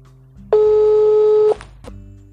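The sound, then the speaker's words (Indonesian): A single loud, steady telephone ringing tone sounds for about a second, an electronic beep like a call connecting, then cuts off, leaving a low background hum, as a prank phone call is being placed. “gue bakal coba telepon Raya Alda sama Miki coba kita telepon Raya dulu”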